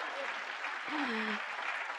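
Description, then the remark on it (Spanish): An audience applauds loudly and steadily, a dense wash of many clapping hands that fills the whole two seconds, with a brief vocal sound rising faintly beneath it midway. “Y unas palabras que yo en mi vida, de su fuerte aplauso, porque ustedes también estaban ahí, ¿verdad?”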